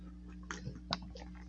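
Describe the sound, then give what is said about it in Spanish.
A quiet sip of water: a few soft slurping and swallowing noises with wet mouth clicks, set against a steady low hum and no talking. “Ah, un sorbo a mi agua de no siempre es bueno.”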